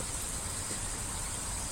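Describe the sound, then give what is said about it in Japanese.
A steady, even hiss of rain falling on a somewhat cold morning, continuous and unbroken with no distinct drops standing out, heard on its own without any voices. “雨ですね。”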